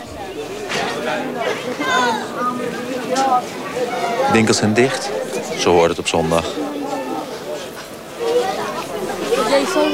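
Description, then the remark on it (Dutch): A dense crowd of men chattering outdoors as they come out of a mosque at the end of the main prayer, at a quarter past twelve, many overlapping voices at steady loudness throughout, with a clearer male voice speaking over the busy murmur. “Het is kwart over twaalf, het einde van de van het grote gebed. Mannen komen uit de moskee. Hier is het eindelijk vol, want de rest van de stad is eh, een soort van uitgestorven.”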